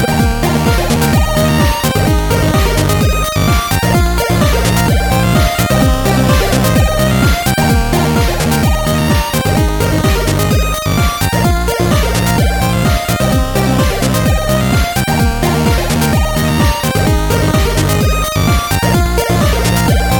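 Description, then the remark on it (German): A loud, dense piece of outro music plays on its own for about twenty seconds, with a steady driving beat and full, busy instrumentation throughout. “Weißt du, dass ich das Auto vermisst habe? Das? Das Outro. Ja, dann hör mal zu.”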